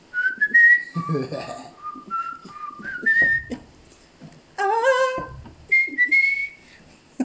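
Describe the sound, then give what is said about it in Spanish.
A person whistles a bright, chirpy bird-like tune in short, wavering high notes, imitating a little bird, with a laugh and a brief lower voiced phrase mixed in. “Mejor soy el pajarito.”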